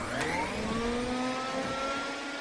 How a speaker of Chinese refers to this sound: 咦，那是什么声音啊？ 诶，从哪里冒出来的吸尘器啊？